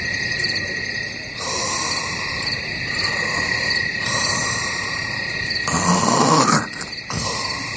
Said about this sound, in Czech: Je večer, krásný teplý letní večer, svrčci cvrlikají.